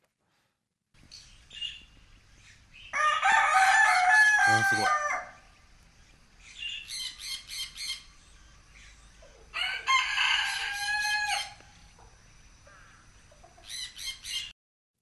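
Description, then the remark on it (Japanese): A rooster crows loudly several times at the small zoo in Oike Park, Tokai City, long strained calls separated by short pauses, with a shorter final crow at the end; a person briefly exclaims. “えー、すごいえこれえであれ鶏じゃなくて 鶏だよね フラミンゴとかウサギとか書いてるから なるほどね”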